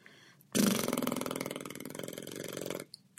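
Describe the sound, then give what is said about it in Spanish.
A single lip trill, air blown through closed lips into a loud, fluttering buzz that holds steady for a little over two seconds and then stops abruptly, with no talking. “Entonces, soplando, como cuando éramos niños, soplando aire a través de los labios, los labios cerrados.”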